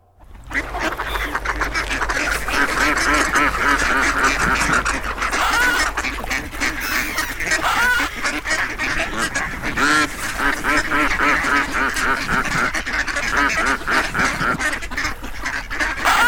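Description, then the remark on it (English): A dense, continuous chorus of ducks quacking loudly and overlapping for the whole stretch, a noisy flock of nasal calls with no pauses and no talking. “And now, what it is like to play Fortnite Battle Royale with ducks.”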